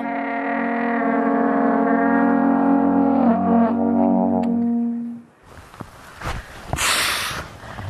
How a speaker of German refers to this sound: Ich tröte einfach drauf los. Keine Ahnung was und wie, aber ich gebe nicht auf und ich spiele bis zum Ende.